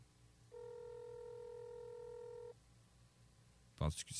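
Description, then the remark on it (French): A phone call rings on the line: one steady electronic ring tone lasting about two seconds, followed by quiet and then a short, sharp knock or clatter near the end. “J'étais en train d'appeler, là. On l'entend.”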